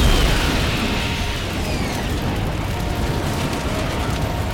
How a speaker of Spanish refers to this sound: Otro avión comercial irrumpe en el cielo de Manhattan y choca directamente con la torre sur del complejo World Trade Center.